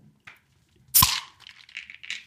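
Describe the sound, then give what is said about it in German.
A beer bottle cap is pried off using a vitamin pill box instead of a proper bottle opener: a faint scrape, then one sharp metallic pop, followed by a soft, lingering fizz of escaping carbonation. “Oh, ich, ich habe leider keinen richtigen Öffner, deswegen muss ich hier eine, eine, eine Vitamin Vitaminpillenbox nehmen.”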